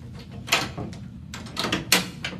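A door opens with a series of sharp clunks and rattles spread over a couple of seconds, over a low background rumble, with no one talking.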